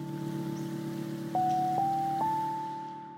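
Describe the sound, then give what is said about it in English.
A slow, mellow lo-fi beat with jazzy sampled qualities and no vocals, warm sustained low chords and a soft melody stepping up a few notes, all under a steady background hiss like light rain or vinyl crackle. “rain or perhaps the crackling of a vinyl record that hasn't been dusted.”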